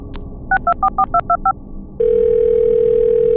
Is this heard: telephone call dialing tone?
yes